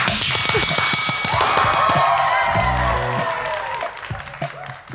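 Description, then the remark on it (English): A burst of applause, dense crackling clapping that holds steady for several seconds, with some tonal, whistle-like sounds mixed in before it tapers off at the end. “That's the end of our quickfire round. Applause.”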